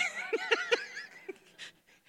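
A phone ringtone plays a song built around dog barks: three quick, evenly spaced woofs, a pause, then one more bark, with a thin electronic tone underneath. No one speaks.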